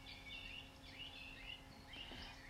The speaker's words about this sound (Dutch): je luistert naar het zachte geritsel van de bladeren in de boom en het mooie gezang van de boom, van de vogels.